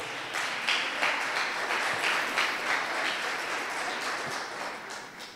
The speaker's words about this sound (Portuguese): E se você crê comigo, aplauda Jesus bem alto.